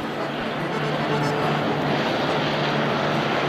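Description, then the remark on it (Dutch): A Lancaster propeller-driven bomber drones overhead, its engines producing a loud, steady, rumbling hum with a low throbbing tone that holds constant throughout, without fading in or out. “Er komt wel een vliegtuig over trouwens in deze video.”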